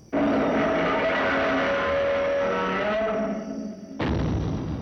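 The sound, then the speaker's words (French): The original Godzilla monster roar, made by rubbing a double bass with a horsehair glove: a loud, sustained roar with a rough, rasping low tone and a steady pitched whine riding on top, dipping briefly before a second harsh burst cuts in near the end. “C'est un son de contrebasse frotté euh, avec euh, un gant de crin, si je me souviens bien.”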